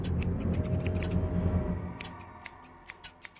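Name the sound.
scissors cutting hair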